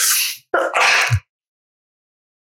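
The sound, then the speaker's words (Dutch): A loud sneeze bursts out in two quick parts, a sharp hiss followed by a forceful blast, then silence. “Gezondheid.”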